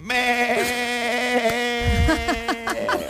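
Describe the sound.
A person imitates a ram's bleat with one long, loud, nasal "baa" held for about three seconds. The pitch holds steady while the tone shakes and quavers near the end.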